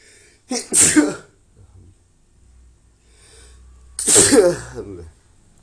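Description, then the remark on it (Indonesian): Two loud sneezes, each a sharp burst with a breathy intake, separated by a few seconds of near silence. “tunggu gue mau bersin”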